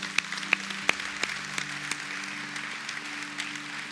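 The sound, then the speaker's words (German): Audience applause after a prayer confessing Jesus Christ as Lord, a steady wash of many hands clapping at moderate volume, with a few sharper individual claps standing out early on and a low sustained hum underneath. “Ja, gebt ihr mal allen Applaus.”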